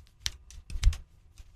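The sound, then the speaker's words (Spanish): A hip joint cracks in a quick, uneven series of dry pops and clicks, several sharp snaps with one louder thud-like crack in the middle, with no talking. “se está tronando la cadera.”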